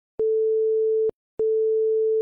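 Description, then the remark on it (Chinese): Two long, steady mid-pitched beeps from a German radio navigation beam for bombers, the beam of long beeps sent beside a second beam of short beeps, each lasting nearly a second with a brief pause between, clicking sharply on and off. “后来发现啊，其实德国人发射了两束并列的无线电波，一束呢是短促的滴滴声，另一簇是很长很长的滴滴这种声音。”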